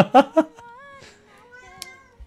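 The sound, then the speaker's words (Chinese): A cat meows: two short, loud chirping calls followed by a long, drawn-out, wavering meow that trails off more quietly. No one talks over it. “我跟你说，猫就是贱， 嗯， 就你要你要理它的话， 那它都不理 永远 你 对它永远都跑得特别远。”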